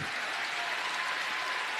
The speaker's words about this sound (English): And honestly, even that cheers, uh, even that applause is a little bit muted. It's not like they're having a great time, I think, at the speech.